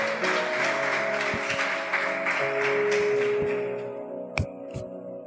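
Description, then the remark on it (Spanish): An audience applauds for God in the morning, in dense, steady clapping over a sustained keyboard chord, then the clapping thins and fades, leaving the held notes and a few sharp taps. “Si ese aplauso fue para Dios, déselo fuerte en esta mañana.”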